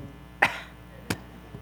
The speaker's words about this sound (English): as I started to talk, I realized uh, that uh, for some reason I was going to cough, which is a whole different thing now. I mean, you know, you used to just go,